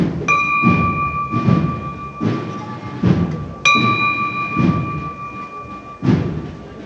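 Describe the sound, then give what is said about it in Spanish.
A metallic bell is struck twice, a few seconds apart, each ring hanging on with a clear sustained tone over a steady backdrop of low, muffled thumps and crowd rumble; it is rung at the end of the march to lower a procession float bearing a crucifix to the ground in Jaén, Spain. “acaba la marcha y se toca la campana.”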